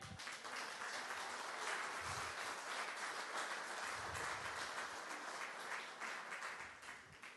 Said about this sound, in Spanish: Aplausos, sí, pueden aplaudir.